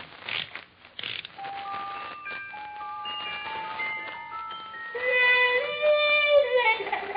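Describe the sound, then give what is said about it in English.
A few ratcheting clicks as a little music box installed in an ashtray is wound up, then it plays a bright, high-pitched tinkling melody, its plucked notes ringing and overlapping as the tune speeds into a busier run near the end. “I had a little music box installed in it.”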